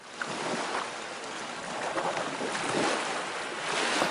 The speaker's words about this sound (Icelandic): Við skulum fá sjávarstemmingu.